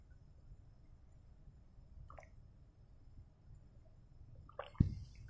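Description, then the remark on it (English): Someone quietly sips water: a faint wet slurp partway through, then a sharper gulp or cup knock near the end over a low steady hum. Nobody speaks. “excuse me while I take a sip of water.”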